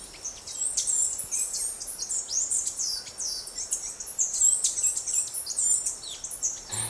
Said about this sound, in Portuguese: É, eu vou confessar que aqui no Sudeste esse canto está presente, mas não é sempre que a gente consegue escutar. Esse é um dos sons emitidos por uma ave linda, colorida, chamada de saí andorinha. Apesar do nome, não é uma andorinha,